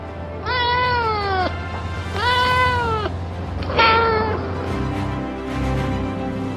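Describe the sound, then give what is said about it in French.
A cat, Félicette, a small French female cat with black-and-white striped fur, meows three times in a row, each call long, drawn-out and clear, over a steady low background rumble with no voices. “À son bord, il y a un félin astronaute, une petite chatte française au pelage rayé noir et blanc.”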